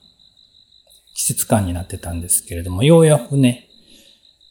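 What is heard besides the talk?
crickets chirping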